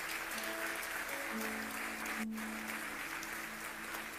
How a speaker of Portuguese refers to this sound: Glória a Deus, né? Minha amada aqui de volta. Isso, aplauda ela.